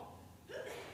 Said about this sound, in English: Bless you.